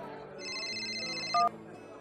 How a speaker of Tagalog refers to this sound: Oh, sino tong tumatawag at hindi nakasave sa cellphone kong number?